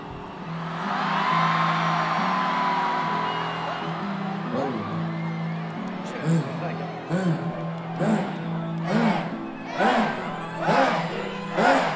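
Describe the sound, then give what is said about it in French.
A big crowd roars and whoops at the very start of a rap concert, over a low, sustained musical drone, then breaks into loud rhythmic bursts of shouting that pulse about once a second toward the end. “Alors, on termine avec un passage de son concert. C'est même le début du concert.”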